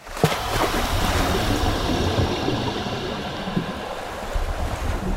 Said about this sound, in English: Now then, sit right here on the rail of the boat, facing me. On the count of three, you're going to roll backwards into the water. Here we go. One, two, three.